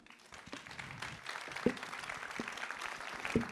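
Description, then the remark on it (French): An audience breaks into steady applause for four panel speakers, a dense wash of many hands clapping that builds after a soft start and holds at a moderate level, with a few sharper individual claps standing out. “On peut les applaudir.”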